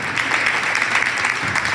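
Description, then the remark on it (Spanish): An audience claps steadily for a guest, a dense wash of many hands at fairly loud, even level throughout, with no voices standing out. “Yo pido un fuerte aplauso para nuestra invitada, por favor.”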